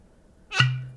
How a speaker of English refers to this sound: this is the sound of a Hennessy bottle popping. Hennessy. Since we've been we've been gone for a while, we might as well celebrate the return.